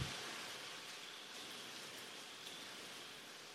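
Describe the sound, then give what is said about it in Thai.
Steady, soft rain hiss with no pauses, a quiet and even wash of falling drops, with no voices over it. “พูดอย่างอื่นมาตั้งนานฝนไม่หยุด พอถึงธรรมชาติที่ไม่เกิดไม่ตายที่แท้จริงนั่นเนี่ยฝนหยุดทันทีเลย”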